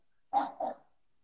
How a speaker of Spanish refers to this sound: la perrita, mi chiquita ladrando